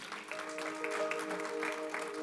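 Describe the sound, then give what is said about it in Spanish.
An audience at a church worship service gives a loud round of applause to the Lord, a steady dense patter of many hands clapping at once, with a sustained low musical tone held underneath throughout. “Si usted lo cree, denle un aplauso fuerte al Señor.”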